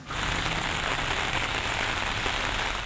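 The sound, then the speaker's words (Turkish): Heavy rain pours down in Düzce in a steady, dense hiss, with scattered drops pattering on a hard surface. The downpour stays loud and even throughout, with no voices. “Fakat Düzce'de şiddetli yağış su taşkınlarına neden oldu.”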